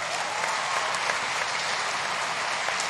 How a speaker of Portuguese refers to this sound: Se é para Jesus, você pode já mandar uma salva de palmas bem linda.